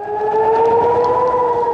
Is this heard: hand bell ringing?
no